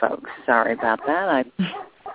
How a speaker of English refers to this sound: And Very excuse the barking dog,